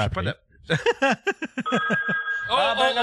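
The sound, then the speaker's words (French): A phone rings for an incoming call with a steady electronic tone lasting under a second, right after a short run of chuckling, and then a voice begins talking over it. “ah, c'est lui, ça!”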